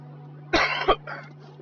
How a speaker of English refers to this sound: which I have i cough. sorry.